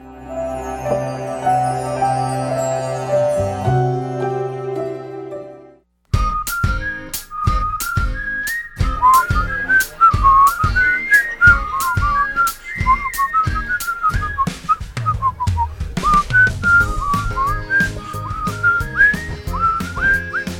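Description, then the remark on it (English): A person whistles a bright, bouncy tune over a steady rhythmic backing, following a few seconds of sustained instrumental chords, live on Real Presence Radio at St. John Paul II School in Gillette, Wyoming. The whistling is clear and prominent, with no talking. “We're just whistling, just whistling along here in Gillette, Wyoming.”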